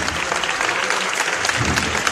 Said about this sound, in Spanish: Suena el martillo y suenan los aplausos de toda la calle Pureza.